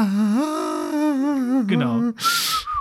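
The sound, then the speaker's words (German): A voice imitates an eerie theremin-like space theme melody, a wavering, sliding tone held for about two seconds, ending with a breathy hiss and a brief thin whistle. “Das klingt so richtig nach, nach, äh, äh, nach Weltraum halt. Und ja, so mit so einem Theremin gespielt.”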